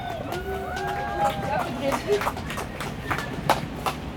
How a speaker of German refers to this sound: Ein Applaus.